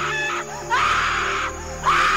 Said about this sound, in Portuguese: E de repente, o grito medonho, inumano.